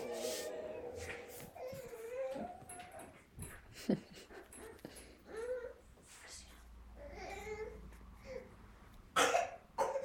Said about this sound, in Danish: Skulle du hoste?